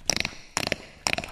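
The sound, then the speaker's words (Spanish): A voice imitates cracking bones with three quick bursts of crisp, popping clicks, evenly spaced, with no talking around them. “Cuando te truenan los huesos”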